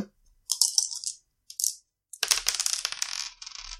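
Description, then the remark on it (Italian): Three dice rattle and clatter on a hard surface, rolled for a resistance check: a few sharp clicks first, then a longer, busy tumbling rattle as they roll and settle. Fairly loud, with no voices. “sono tre dadi perché immagino che sia prowess.”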